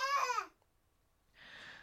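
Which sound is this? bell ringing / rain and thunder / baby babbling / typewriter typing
baby babbling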